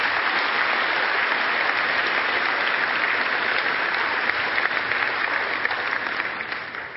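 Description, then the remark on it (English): A crowd of people claps steadily in sustained applause, dense and even throughout, easing slightly in the final moment. “And everyone said, well, let's hear it for the Dixon, shall we?”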